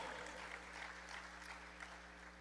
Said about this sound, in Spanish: Dar un aplauso al Señor por esto.